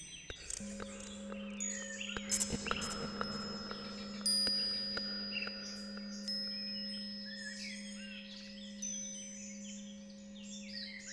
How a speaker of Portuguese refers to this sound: Sinos tocam e uma divina presença começa a se aproximar.